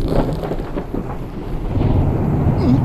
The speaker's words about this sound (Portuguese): trovão ressoa no céu e assim que o trovão cessa